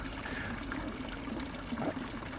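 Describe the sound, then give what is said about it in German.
Spring water runs steadily from the spout of a spring-fed public drinking fountain in Zürich, Switzerland, a continuous trickle and splash with a faint tonal hum underneath, uninterrupted and moderately loud. “Was passiert denn mit dem ganzen Wasser, das nicht von uns zum Beispiel hier getrunken wird? Wo läuft das hin?”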